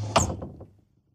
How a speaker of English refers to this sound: So let's grab her love handles, open my wardrobe doors, and find out what's inside.